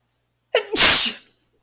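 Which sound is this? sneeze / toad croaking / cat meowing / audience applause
sneeze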